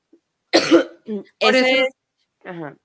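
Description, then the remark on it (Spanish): A person coughs: a sharp, harsh burst, then a few shorter throaty, voiced coughing sounds over about two seconds, with brief silences between them. “cada vez que me interrumpes me da como espacio para toser, pero está bien.”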